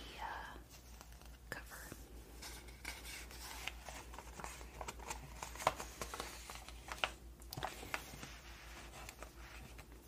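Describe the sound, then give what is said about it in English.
Pages of Breathe Magazine flipping and rustling, a steady run of soft crinkly paper sounds with sharper snaps as pages turn, quiet overall with a faint whisper-like hush beneath. “page flipping, paper sounds”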